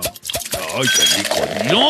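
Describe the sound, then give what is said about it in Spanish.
A beer bottle is opened with a few quick metallic clicks and a light clink, followed immediately by someone talking. “Ay, pero antes voy a destapar mi cerveza.”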